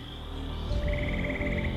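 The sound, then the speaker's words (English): A steady, high-pitched insect drone hums throughout in a hot, humid swamp-like prairie at midday, joined partway by a rapid pulsing trill, all over a low, rumbling outdoor background with no voices. “You hear the buzzing of insects.”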